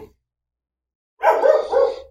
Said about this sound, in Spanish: Justo mi perro se puso a ladrar ahora. Fantástico. fantástico. Justo mi perro se pone a ladrar.